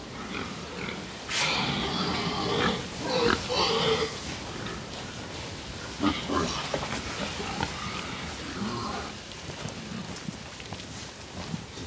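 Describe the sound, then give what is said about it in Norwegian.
Several pigs grunt and snort in irregular bursts, with louder squeals and clusters of oinks rising over a steady background rustle, on a farm with a round-arch hall in the woods housing up to 400 pigs. “Så i 2014 bygde vi en rundbuehall borti skauen her som kan huse 400 griser.”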